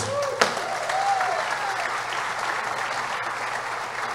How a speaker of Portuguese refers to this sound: Tem alguém da Vinho Novo aqui nessa noite? Uma salva de palmas!